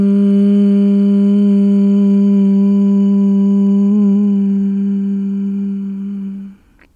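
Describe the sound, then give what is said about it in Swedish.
A single long, steady hum of the word "hum" from one voice, breathed out after inhaling through the nose in a relaxing breathing exercise, holds an even low pitch for about six seconds, then fades out as the breath runs out. “Och andas ut och häng på ordet.”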